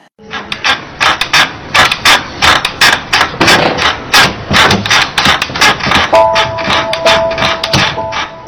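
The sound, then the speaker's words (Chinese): A small bamboo chair, in service for nearly thirty years in a sound company's recording studio and used for foley on 潜伏 (Lurk), creaks and rasps in a steady rocking rhythm, roughly two or three dry, crackling creaks per second, fairly loud, with no talking over it. “啊一个小竹椅子，它为我们公司服役了将近三十年。”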